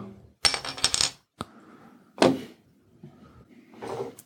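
A Bitburger beer bottle being opened: a cluster of sharp metallic clinks and rattles, then a brief airy pop-like burst, followed by softer handling noises. No one speaks.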